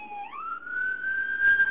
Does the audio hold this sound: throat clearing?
no